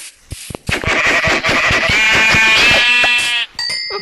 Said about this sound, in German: Hier ist ein Schaf, das kann ich auch gehen. Ähm, also, hier, komm her. Okay, das hat mir genommen. Und das Schaf hier.